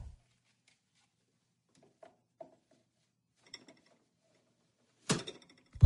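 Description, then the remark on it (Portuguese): Small plastic clicks and taps as a filter bag is fitted into a coffee machine in a kitchen, scattered and quiet at first, ending with a louder clattering snap as pieces lock into place. “Encaixa tudo direitinho.”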